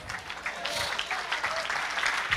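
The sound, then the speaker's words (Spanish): Steady applause from an audience, a dense wash of many hands clapping, sustained without pause through the whole moment. “dale ese aplauso.”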